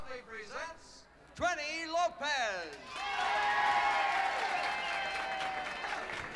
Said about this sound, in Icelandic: Það er gleði Já það er mikil gleði og það er þessi, þessi draum sín Þetta klapp, nákvæmlega þetta, þetta minnir mig á sko, sko frænga mín átti svona plötur í gamla daga